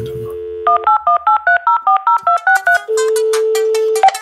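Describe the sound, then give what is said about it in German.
A loud telephone ringtone effect: a steady tone gives way to a quick run of about ten evenly spaced two-note electronic beeps, ending in a sustained buzzy tone. “äh, muss ich das Telefonding da auch rein.”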